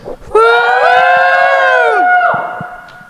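Convention audience members at a panel at Louisville Supercon 2018 cheer with loud, sustained high-pitched whoops and yells that hold steady for nearly two seconds, then slide downward and fade out.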